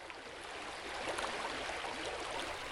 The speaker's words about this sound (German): Weiter ging es nun zu den Klippen und dem reißenden Bach, den man inzwischen schon von weitem hören konnte.